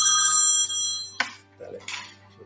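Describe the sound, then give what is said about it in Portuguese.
A telephone rings with a bright, steady electronic trill for about half a second, then cuts off, leaving a few short, soft clattering noises. “Tirar a campainha para ele não perturbar a gente.”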